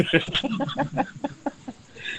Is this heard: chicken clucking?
yes